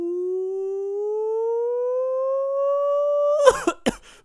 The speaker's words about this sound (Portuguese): Alô, militância! Cadê a, a, a corneta da militância?